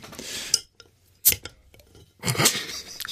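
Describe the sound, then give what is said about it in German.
A drink bottle is opened: a few sharp clicks and rattles of the cap, then a brief hissing rush of released pressure, with no one talking. “Prost, alles klar. Aufgemacht.”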